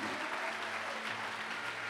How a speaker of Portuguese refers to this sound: Aplauda o Senhor porque Ele vive.